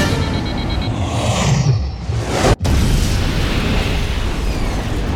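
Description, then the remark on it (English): An aircraft with hover fans crash-lands on the frozen ground of Devon Island: a loud, rumbling impact roars continuously, with a heavy crash, a brief sharp dropout, then sustained grinding, crunching noise as the craft skids across hard ground, dense. “The condors slammed into the frozen ground of Devon Island.”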